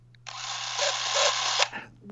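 A film camera running at high speed in slow-motion mode, giving off a dense, loud mechanical whirring rattle for about a second and a half before cutting off, with a faint steady hum underneath.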